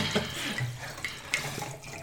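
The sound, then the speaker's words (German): Wine from a screw-capped bottle pours into glasses, a quarter for each person, with a steady, gurgling trickle of liquid, a few brief bright taps cutting through, and no one speaking. “Dann, solange hier eingeschenkt wird, mache ich hier mal weiter.”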